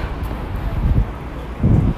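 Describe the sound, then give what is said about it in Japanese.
Strong wind at Asakusa Station buffets the microphone in low, rumbling gusts, swelling twice into heavy blasts of muffled roaring noise, with no voices. “風の音がすごい。”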